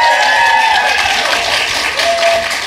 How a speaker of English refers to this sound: Now, now, when you go, if you're here, when you go to listen to the show, you can try to pick out each of your own claps and cheers.